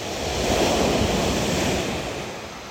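Ocean surf washes steadily onto the shore, a broad continuous roar that swells slightly and then eases back, with no voices present.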